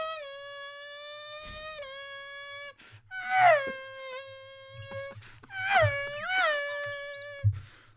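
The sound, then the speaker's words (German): A person's voice imitates a Formula 1 car: a long, steady, high-pitched nasal whine followed by rapid rising and falling sweeps, like revving engines and gear shifts, with brief breaks between bursts. “Äh, ich kann Formel 1-Wagen nachmachen.”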